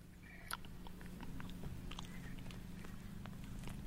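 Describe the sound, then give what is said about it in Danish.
A person chews a mouthful of freshly torn-off grass: steady chewing with soft crunchy bites and wet mouth sounds, repeating irregularly over a constant low hum, no talking. “Så, så spis det græs.”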